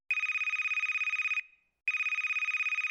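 A Telegram call ringtone plays alone as a call is redialed: two long bursts of a bright, rapidly pulsing electronic tone separated by a brief pause.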